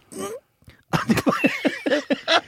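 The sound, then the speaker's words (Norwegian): A voice imitates a stifled sneeze: a short breathy burst, a brief pause, then a quick run of about eight tight, squeaky voiced puffs, fairly loud. “Jo, fordi at, Det verste jeg veit, er når folk kveler nys.”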